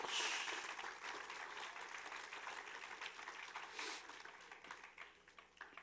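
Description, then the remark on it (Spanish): An audience applauds God, a dense wash of many hands clapping together, loudest at the start and then holding steady for several seconds, with no one talking over it. “Puedes darle un aplauso fuerte a Dios.”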